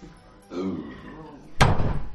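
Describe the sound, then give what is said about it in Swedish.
A single loud door slam hits sharply near the end with a heavy low thud, just after a short stretch of someone talking. “Stäng dörren eller har du en flaggstång i arslet?”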